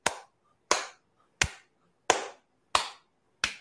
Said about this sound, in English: Do the clap.